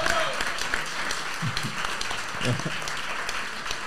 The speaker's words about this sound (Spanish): pero queremos empezar dando gracias a la sala, la sala de Sevilla por dos motivos. Uno, ser perezosos poniendo nombres. Y dos, dejarnos hacer esta vaina hoy. Un aplauso hoy, por favor.